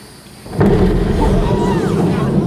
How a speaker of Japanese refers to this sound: だが何の前触れもなくロケットの上半分が爆発を起こす担当者は突如巨大な火柱と化したファルコン9に絶句した